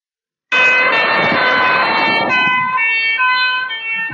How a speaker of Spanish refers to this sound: Ah, es un camión de bomberos. ¿Qué le ha pasado? Que cuando el camión de bomberos se acercaba a nosotros, hacía un sonido muy agudo, hacía ni, ni, ni, ni,